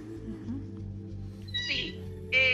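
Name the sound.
cat meowing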